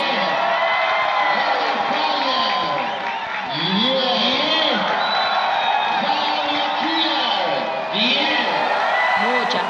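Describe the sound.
A large crowd in a nightclub in Argentina cheers loudly and continuously during the jury vote of the national drag queen pageant, with shrill whoops and shouted voices rising and falling over a dense, roaring wall of noise that barely dips throughout.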